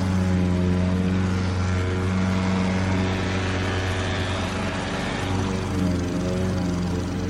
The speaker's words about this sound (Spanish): es de esas cortadoras de, césped o de zacate, ¿no? Sí, lawnmower, no, no sé cómo se llama en español, pero sí, como máquina para cortar césped.